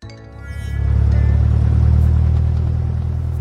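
A small airplane lands on a small hill. Its engine drones steadily, a deep rumbling hum with a throbbing pitch that swells louder after a brief start and then holds. No voices are heard.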